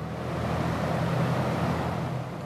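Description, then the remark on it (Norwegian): Three large fans blowing artificial wind into the stage space at Rogaland Teater make a steady, even roar with a low hum underneath, holding a constant level throughout, with no voices. “Tre store vifter blåser kunstig vind inn i scenerommet ved Rogaland teater, der Tatu Hemmelainen er instruktør”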